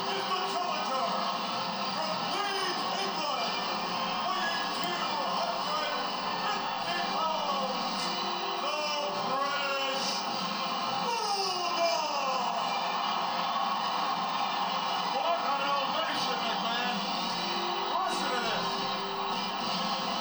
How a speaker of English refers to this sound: Here. Lennox Lewis. Let's uh, let, us play the audio. See, hear this crowd.